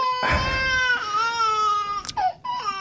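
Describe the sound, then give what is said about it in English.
Loud crying: long, high, wailing sobs held for about a second each, broken by short catches of breath, then another drawn-out wail starting. “I mean, it, it got so bad this crying just like this.”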